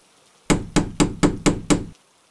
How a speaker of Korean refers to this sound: 그녀가 방문을 두드려대는 소리가 들렸다. 저기 무슨 소리야?